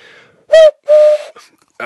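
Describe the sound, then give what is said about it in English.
Two loud, hollow owl hoots blown through cupped hands, demonstrating how to make an owl noise using just hands and mouth, with a brief gap between them; the second tone holds a little longer, and a faint breathy rush follows. “The skill that I want you to learn, wait for it, is how to make an owl noise using just your hands and mouth, like this.”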